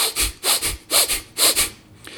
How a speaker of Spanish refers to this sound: Entonces, a mí me gusta hacer la respiración de 1-1, que es rápido.